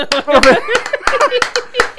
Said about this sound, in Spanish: Señores, un aplauso.